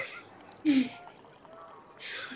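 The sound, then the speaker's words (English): Someone takes a quick sip of water from a small bottle, followed by a breathy exhale a moment later, with no talking. “Both our characters have had to hydrate.”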